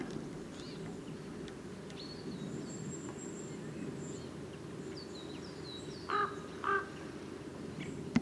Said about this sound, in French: Avec un grand corbeau.